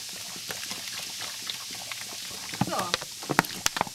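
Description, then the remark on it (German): Cola fizzes and bubbles up out of a sink drain, with a steady stream of tiny crackling pops and sharper popping bursts toward the end. A voice briefly sounds faintly in the background. “Es sprudelt schon. Also aus dem Abfluss raus.”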